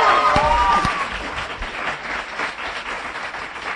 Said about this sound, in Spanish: Un aplauso. Gracias a ustedes.